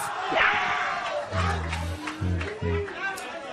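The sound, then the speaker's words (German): A studio audience at a quiz boos after the answer Willi Stoph is given: a murmur of crowd noise gives way to a long, low, droning boo, then two shorter, loud boos in quick succession, with scattered voices mixed in. “Ja, und da kommen natürlich hier politisch korrekte Buhrufe.”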